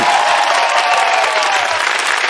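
Sustained applause from a studio audience, a dense steady wash of clapping hands at an even, loud level throughout, with no one speaking over it.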